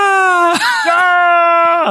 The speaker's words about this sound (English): think they just took his scream from last episode and added reverb onto it.